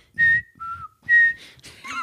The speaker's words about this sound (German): Hörst du nicht die Pfeife? Hörst du nicht die Pfeife?